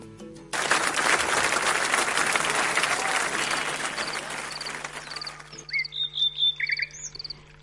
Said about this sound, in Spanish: Y ahí, entre aplausos y pajaritos, volvemos.